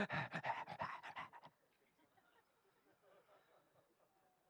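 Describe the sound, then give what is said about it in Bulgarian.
A man imitates a dog's panting with quick, rhythmic, breathy huffs for about a second and a half, loud, then it drops to faint background noise. “Даваш на, на кучето похвала, даваш му, хвърляш му нещо и, и то...”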